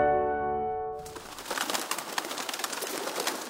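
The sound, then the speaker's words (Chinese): A pigeon takes off, its wings clapping in a quick, fluttering burst of papery flaps that continues steadily. The flapping is preceded by a brief ringing tonal chime. “这是鸽子飞走的声音。”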